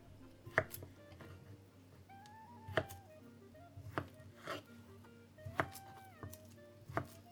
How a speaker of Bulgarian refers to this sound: Връщам се обратно към гарнитурата, обелвам картофите и ги нарязвам на купчета.